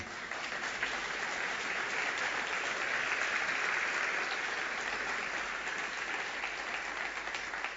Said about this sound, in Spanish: Termino con un rey de reyes y ahí me aplaude.